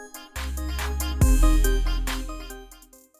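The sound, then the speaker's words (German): A short musical jingle of about three seconds, with punchy percussive hits over sustained synth tones and a deep bass swell kicking in midway, played alone before tapering off. “das war jetzt, glaube ich, der Jingle für Thema der Woche, aber ich peile immer nicht mein Handy mal leise zu stellen.”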